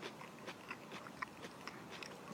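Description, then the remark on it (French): Crisp crunching as someone bites into and chews a raw vegetable, several sharp cracks in an irregular rhythm over quiet background, no talking. “Tu l'entends”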